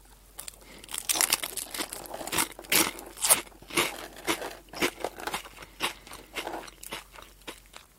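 Crunchy Potelong potato stick snacks being chewed in a steady series of sharp, crackly bites, about a dozen crisp crunches spread over several seconds with no talking.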